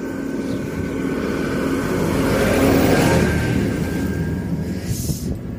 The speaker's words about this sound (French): Attention, il y a un tracteur qui passe. Oh my god.